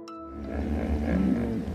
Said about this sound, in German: Nilpferde brüllen nicht einfach so wild in der Gegend herum. Sie können ihre Freunde am Gebrüll erkennen. Französische WissenschaftlerInnen haben das herausgefunden. Nilpferde können Freunde, Nachbarn und Fremde an ihren Lauten unterscheiden.